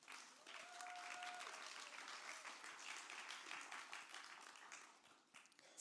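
A crowd claps steadily, dense overlapping hand claps forming a continuous wash of applause that holds for several seconds before thinning out, with a faint brief tone and a few voices beneath, as three people are called onto the stage on a Sunday morning.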